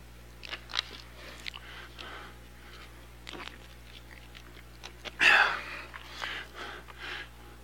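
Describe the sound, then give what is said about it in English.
Bible pages rustle and flip throughout as an audience turns to Hebrews chapter 2, verse 14, scattered soft crinkles from several spots, with one louder page turn partway through. Nobody speaks. “So then, as children, I still hear pages, I'll wait.”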